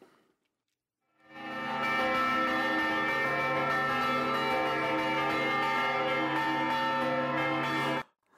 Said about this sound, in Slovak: Ak môžeme poprosiť eh, tu na pána zvukára. Dobre, Matúš za mixážným pultom nám zapne prvý zvon a potom môžeme ďalší zvon Áno.